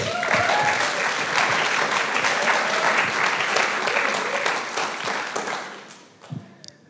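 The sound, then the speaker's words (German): Sustained audience applause at a church, a dense wash of many hands clapping at steady volume for about five seconds, then tapering off quickly with a few last scattered claps, greeting the announcement that five people will preach today. “Und das ist, denke ich, mein Applaus wert.”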